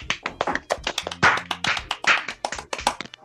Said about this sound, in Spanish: ¡El aplauso!